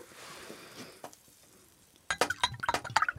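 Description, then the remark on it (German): A soft, steady trickle of apple-cherry juice pouring into a glass, followed by a quick run of bright glassy clinks and taps with a ringing tone. No one speaks. “Schenkst du mir auch ein halbes Glas ein?”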